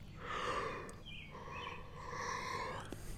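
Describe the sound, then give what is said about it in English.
A long, breathy human yawn, stretching out over about three seconds with a brief squeaky catch partway through before trailing off. No one speaks. “Another yawn.”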